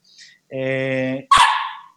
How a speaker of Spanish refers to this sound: Todo esto aquí, la perrita está ladrando también y ayudando en esto, pues eso es lo que hacemos desde casa, yo creo.